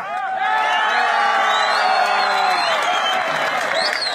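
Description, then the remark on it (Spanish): A crowd of rescuers bursts into sustained applause and cheering as the last woman to be rescued is brought out alive, with many voices shouting and whooping together over steady clapping, loud throughout. “todos empiezan a aplaudirse hace la aljarabía y pues bueno, era la última que teníamos que rescatar”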